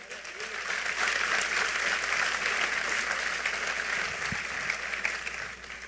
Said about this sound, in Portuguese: Pode aplaudir a ele se for para ele.